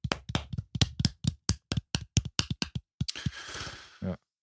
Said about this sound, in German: Applaus dafür.